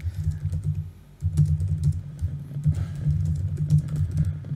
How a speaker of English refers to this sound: Hang on, I'll just search for it. Yeah. You're gonna, you're gonna hear me typing for a second.